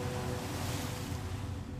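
Steady wash of ocean water, a soft continuous roar of waves with low rumble and no distinct breaks, moderately quiet, with no voices.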